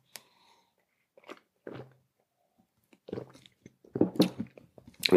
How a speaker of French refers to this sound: Je rebois un petit coup.